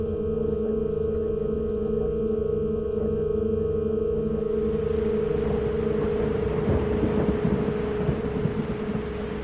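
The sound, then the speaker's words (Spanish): Heavy, torrential rain at night swells into a dense, steady roar halfway through, with low rolling thunder rumbling beneath it and a faint tonal hum lingering early on. No voices. “Llueve torrencialmente. Es de noche, saliendo de la oscuridad.”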